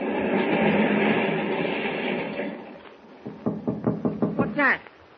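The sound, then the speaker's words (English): Sharp knocks on the door of the captain's quarters aboard a ship, about seven raps in a quick, steady run, following a fading stretch of rumbling background noise. “Someone is knocking at the door.”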